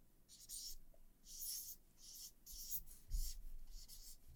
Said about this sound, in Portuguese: É, eu vou escrever essas duas palavras né, para quem estiver assistindo e vou descrever para quem está apenas ouvindo.